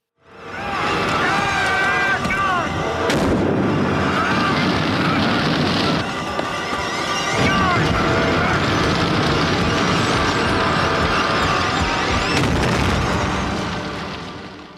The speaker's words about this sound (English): This sequence is really nicely directed, and the car explosion is really terrific, and the death pretty macabre.